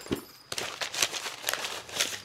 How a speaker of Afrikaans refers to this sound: Die papier saam met die bank staat hier in my draaisak druk.